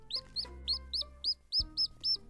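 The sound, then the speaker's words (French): A rapid run of about eight high, shrill chick cheeps, evenly spaced, with a hen's low, throaty clucking rumbling underneath. “Poule avait des petits, qui picoraient et piaillaient, qui sautaient et qui couraient dans les ronces.”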